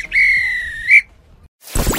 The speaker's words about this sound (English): This were a real bit of extra time. This is when the ref blow the whistle because it's finished.